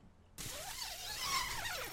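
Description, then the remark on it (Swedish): A motor engine drones after a brief silence, its pitch wavering up and down as it rumbles steadily, echoing around the surrounding forests; no one speaks. “jävla motorljud som ekar runt här ja. bland skogarna.”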